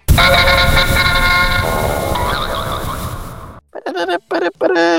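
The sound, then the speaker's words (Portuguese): A loud, brassy old-fashioned jingle of unknown origin with honking horn-like tones, played to open a 'word of the day' segment, plays for about three and a half seconds, then cuts off into a few short, punchy vocal phrases. “Palavra do dia, roda a vinheta antiquada que ninguém sabe de onde é.”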